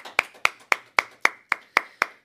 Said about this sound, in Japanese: 先発坂東優吾皆さん拍手をよろしくお願いします